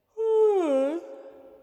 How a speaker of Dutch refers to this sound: Pedro geeuwt nog een keer en Lorelei's dragers schrapen hun kelen.